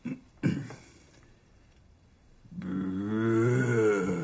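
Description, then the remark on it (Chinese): Someone imitates a bear speaking bear language: after two short rough bursts and a pause, a long, low, wavering voiced rumble swells and holds for about two seconds. “但确实听不出来熊语里面的粗鲁是什么意思。”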